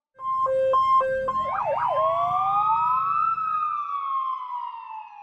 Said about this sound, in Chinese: 猴子警长的报警器响了起来。